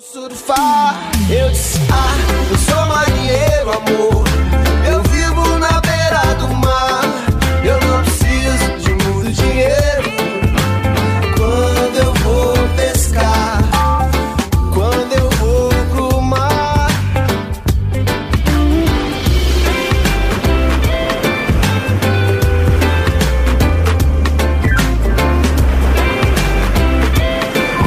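A song plays loudly and steadily for the whole stretch, with a full band sound, a prominent bass line and bright melodic layers, uninterrupted by any talking.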